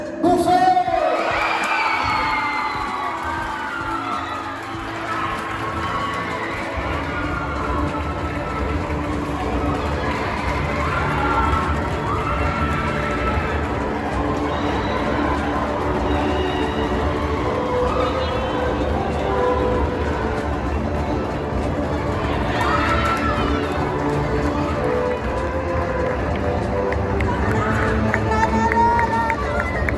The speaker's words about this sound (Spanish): Hay una sorpresa al respecto, pero es hora de anunciar el mejor cortometraje de esta noche. A quien extendemos el gran aplauso es...